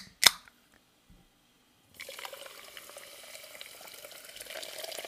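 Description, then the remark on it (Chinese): A single sharp click, a moment of quiet, then just-opened sparkling water fizzing: a steady, bright crackle of tiny popping bubbles that holds an even level until the end, with no voices. “让我们听一听气泡水的声音。”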